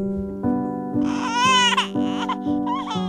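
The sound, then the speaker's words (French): A newborn baby gives its first cry in Dole in the Jura on 27 December 1822, in short, wavering wails that rise and fall, clear, over a steady low sustained tone in the background. “le petit Louis pousse son premier cri à Dole dans le Jura”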